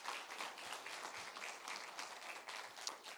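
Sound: audience applauding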